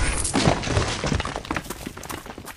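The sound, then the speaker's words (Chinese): A cracked stone wall is smashed open to break a path through, in a dense, crashing burst of breaking rock and rubble, loudest at the start, then a scatter of cracks and crumbling debris trailing off. “你说过，就算砸都要砸出一条路来。”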